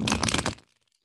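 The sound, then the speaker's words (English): A quick riffle shuffle of a Light Seers Tarot deck of cards: a dense, crackling flutter for about half a second, then a few faint ticks as the cards settle. No one speaks. “now that you mention it i love shuffling cards okay well then while i shuffle i'll say that”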